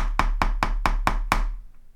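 Six quick, evenly spaced knocks on a wooden tabletop next to the microphone, loud, each with a short hollow ring, over a faint low hum and no talking.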